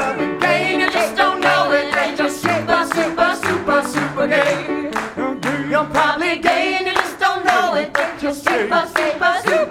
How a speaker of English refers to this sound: Come on, let's clap.